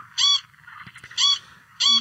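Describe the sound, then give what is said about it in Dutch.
A corncrake's harsh, rasping krek call repeats three times in short, loud, dry bursts against a quiet background with faint low rumble, no voices present. “Een raspend krek krek, zeggen ze.”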